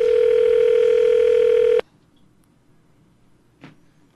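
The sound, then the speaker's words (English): One loud, steady electronic ringback tone of a phone call being placed to Bank of America sounds for under two seconds, then cuts off abruptly into near silence broken by a faint click. “We're calling Bank of America.”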